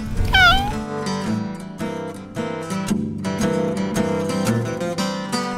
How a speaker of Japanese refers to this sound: あ、漁港を外れて、え、あ、今度は黒猫がいますよ。四匹目の。えー、あ、また猫だ。